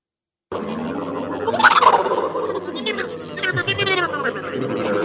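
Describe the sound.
A voice imitates the muffled, trombone-like wah-wah of the Charlie Brown Peanuts cartoon teachers, mimicking how someone sounds talking through a face mask, warbling and gobbling in wordless syllables for several seconds at a steady, fairly loud level.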